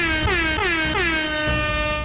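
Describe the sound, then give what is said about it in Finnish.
A loud, brassy phone ringtone that sounds like an air horn, sounding as a rapid series of sliding, falling blasts that repeat over about two seconds, with no voices, signalling an incoming call from the speaker's son. “Mun poika soittaa.”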